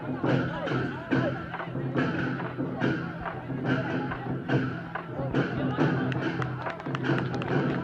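Loud, steady drum and gong beats pound in a regular rhythm over a dense wash of cheering and shouting from a large crowd, continuous throughout, as Adili, the 'Tianshan Eagle', walks step by step with a balance pole toward the finish.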